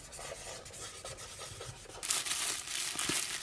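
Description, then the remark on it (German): Scratchy scribbling of a pen on paper as notes are taken in a lecture hall, continuous, with short strokes that turn brighter and busier about halfway through. No voices. “Kritzeln.”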